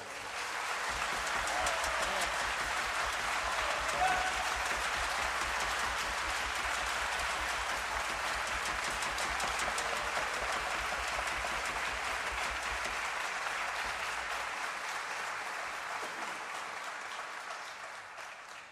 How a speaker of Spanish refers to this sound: Pido un fuerte aplauso para el director, para el arreglador y bandoneonista